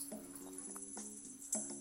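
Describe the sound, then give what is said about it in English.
Quiet mid-1970s instrumental groove music from YouTube in the background, with steady sustained tones and crisp bongo hits tapping out a loose rhythm. No one speaks over it. “Kind of groove stuff, you know? Bongos.”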